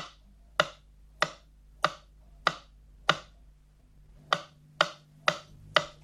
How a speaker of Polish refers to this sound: Dla sprawdzenia zgodności kierunków podane zostaną sygnały testowe kolejno na lewy i prawy kanał. Kanał lewy.